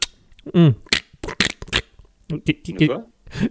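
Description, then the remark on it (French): Wet smacking and sucking sounds of someone licking their fingers after eating pizza, a quick irregular series of clicks mixed with brief murmured vocal noises. “en fait, j'ai pris une bonne pizza là et j'étais en train de me lâcher les doigts.”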